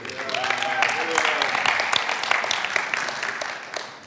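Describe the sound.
A crowd claps steadily for about four seconds, a dense, even patter of many hands, with a murmur of voices mixed in near the start.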